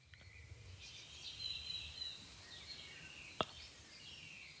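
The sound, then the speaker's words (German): Faint birds chirp and twitter in thin, high streaks over a quiet outdoor hush, with one brief sharp click partway through. “Und zwar, äh, höre ich das auch die Vögels, die sind hier an, an, ja.”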